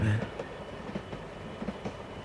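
A train rolls steadily along railway tracks in Italy, a constant low rumble broken by regular clacks from the wheels passing over rail joints, fairly loud.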